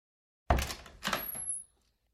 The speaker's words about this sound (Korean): 두어 번 노크를 해도 기척이 없어 손잡이를 돌려보았다.